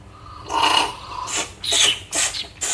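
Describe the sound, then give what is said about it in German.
Someone slurps Japanese Sencha green tea in a series of airy, hissing sips, four or five wet bursts of varying length drawn in quick succession, with no talking. “Darf ich da schlürfen?”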